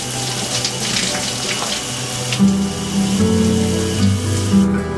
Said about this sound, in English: I take a shower with soap.